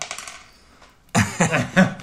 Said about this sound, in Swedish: Så vi slår. Som jag sa, du fick den höga tärningen.